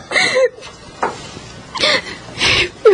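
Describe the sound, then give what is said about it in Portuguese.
A woman cries softly at a graduation party in short, breathy sobs and shaky gasps, with a few brief whimpering tones between quiet pauses, fairly gentle. “você está chorando?”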